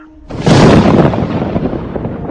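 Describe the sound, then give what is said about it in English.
A lion's roar bursts in suddenly, loud, then rolls on as a rough, rumbling growl that fades only slightly over a couple of seconds. No one speaks. “So Jack woke up and he heard the lion roar”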